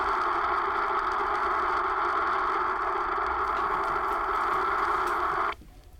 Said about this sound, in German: Krass, wie das rauscht. Ah, das hört sich dann, wenn man, wenn da Wasser rauscht, ist das das Geräusch, oder?